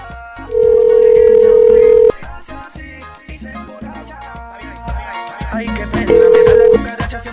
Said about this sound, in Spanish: Estamos llamando.